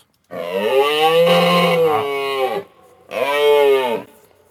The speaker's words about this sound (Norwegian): Vi skal høre fasiten. Hvordan er det elg høres ut?